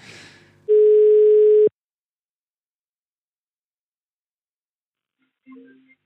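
A single steady telephone ringback tone, heard while calling a Dutchman, sounds for about a second after a brief noisy rustle, followed by a long silence and then a faint start of a voice answering.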